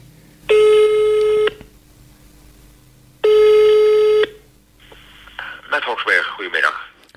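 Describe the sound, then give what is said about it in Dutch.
A telephone rings twice, each steady buzzing burst lasting about a second with a pause between, followed by a voice beginning to talk after the second ring, as a caller from the programme Hart van Nederland phones an adoption expert. “Ik ehm, bel u eventjes omdat we hebben begrepen dat u de expert bent op het gebied van adoptie.”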